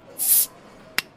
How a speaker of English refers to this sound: Pop a bottle.